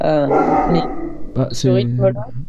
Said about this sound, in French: c'est mon chien qui aboie. Quelqu'un doit arriver.